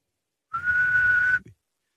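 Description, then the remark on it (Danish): A person whistles one steady, sustained note for about a second, clear with some breathy air behind it, then stops abruptly. No one talks. “Den er næsten lige så dumt som det der med, at hvis man er homoseksuel, så kan man, øh, eller i tvivl, så kan man tjekke, om man kan fløjte.”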